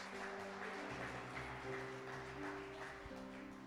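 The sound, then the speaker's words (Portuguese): A crowd applauds steadily for several seconds, a dense, continuous clatter of many hands, with low sustained keyboard tones humming underneath; a round of applause given to God at a preacher's call during a sermon. “Se o Senhor é por nós, dá uma salva de palmas a Deus, que está muito quietinho aí.”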